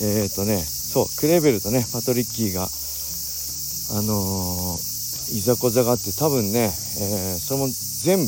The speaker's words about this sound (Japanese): すごいセミの鳴き声ですね夏ですね皆さん聞こえますこれももう木に囲まれた木のトンネルをくぐってるんですけどセミの鳴き声半端ないです僕の声より大きいんじゃないでしょうか